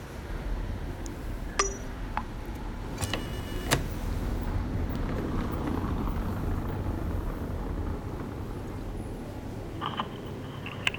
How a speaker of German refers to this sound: So, ich bin jetzt hier vor der WG und würde jetzt einfach mal klingeln.